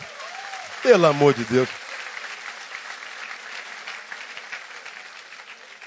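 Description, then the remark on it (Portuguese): A voice calls out briefly at the start, then a sustained wash of audience applause follows, steady and moderately loud, with many hands clapping together until the end. “Pode aplaudir o Senhor.”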